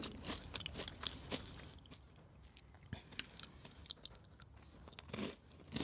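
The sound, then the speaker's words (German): Crisp crunching of a homemade cookie, baked from a grandmother's recipe, being chewed, with repeated sharp bites and grinding in an irregular rhythm, fairly quiet and heard on its own without talking. “Aber das erste Plätzchen Auto ist verzehrt.”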